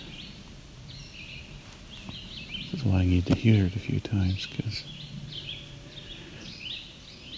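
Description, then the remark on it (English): A songbird sings bright, high, warbler-like phrases in repeated bursts throughout, steady and fairly faint, while a man talks over the middle stretch. “song can be fairly easily confused with a yellow warbler.”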